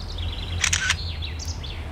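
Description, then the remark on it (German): A phone camera shutter clicks once with a sharp, crisp double-edged burst near the middle, while birds chirp faintly in the background over a low steady hum. “Ich habe mein Handy auf medien.kamera eingestellt”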